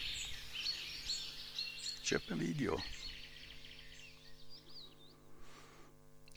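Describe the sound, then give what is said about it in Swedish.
A songbird, a species that arrives in late May and sings for a few weeks, sings a fast, continuous stream of bright, warbling notes throughout, steady, with a short spoken phrase cutting in briefly near the middle and a faint hum underneath. “ett nytt ljud i, i vårt landskap. Kommer i slutet på maj, sjunger några veckor, sluta sjunga så fort han får tag på en tjej.”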